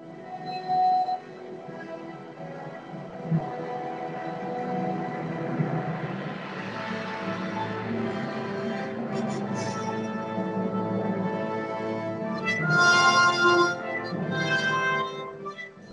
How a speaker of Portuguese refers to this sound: Então a música nessa hora é assim. Eu quero que vocês tentem ouvir a articulação de cordas lá embaixo, desse tema que é dado por trompas.